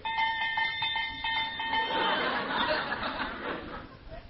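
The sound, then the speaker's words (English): A cowbell, bought by Riley as a curfew bell in the radio show The Life of Riley, clanks repeatedly in a quick, steady rhythm, giving a bright metallic ring with strong overtones, then dissolves into a louder, rougher jangle of clattering noise. “That's a real good curfew. It's a cowbell.”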